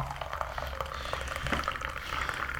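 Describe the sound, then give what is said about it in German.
Coffee pours steadily into a cup, a continuous liquid trickle with faint bubbling and splashes, running for a few seconds at moderate loudness with no voices. “Ja, ich gieße mal kurz noch Kaffee ein.”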